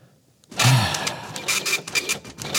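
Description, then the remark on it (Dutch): A printer starts up after a moment of near-silence, then whirs and rattles steadily as it feeds and prints pages, with rhythmic mechanical bursts and no talking. “is onze podcast aan het uitprinten, ik hoor het al.”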